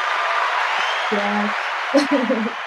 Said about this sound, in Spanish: Con aplausos,